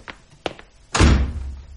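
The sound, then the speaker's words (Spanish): A woman shuts a door behind her; it slams shut with a heavy, booming thud, preceded by a couple of light clicks or taps from the handle; the low rumble lingers briefly after the impact. “Y mi madre, que me había estado amenazando con una escoba, Cerró la puerta tras de sí.”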